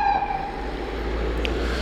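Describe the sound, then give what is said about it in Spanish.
An ambulance siren wails steadily as it passes, its high tone and harmonics riding over a loud, constant traffic rumble, with no one talking. “Bueno, perdón por el ruido, está pasando una ambulancia.”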